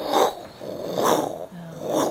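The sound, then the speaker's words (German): A voice imitates a volcano's continuous hissing roar during an eruption, with breathy, rasping exhalations that swell three times in a steady rhythm, fairly loud, with no words spoken. “so ein Fauchen.”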